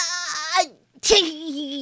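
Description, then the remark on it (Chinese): A voice acts out a long, loud sneeze caused by an allergy: a rising, wavering "ah" build-up, a brief catch of breath, then a sharp burst that stretches into a drawn-out, pitch-bending wail. “先是不停的打喷嚏，他的喷嚏响又长，啊啊啊啊啊啊啊！”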